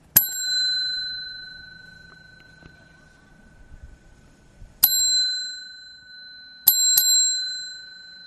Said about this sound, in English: Where's the bell? Here we go.